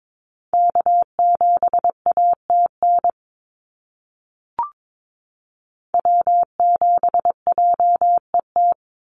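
Morse code callsigns of NA SOTA activators sent at about 22 words per minute: a steady mid-pitched tone keyed in quick dots and dashes, two bursts separated by a pause with a brief click between.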